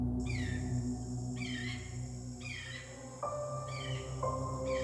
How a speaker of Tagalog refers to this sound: Ala, ibon ba yun? Ang ganda naman ng huuni. Parang kumakanta. Noon lang po ako nakarinig ng ganong klasing tunog. Napakasarap sa tenga.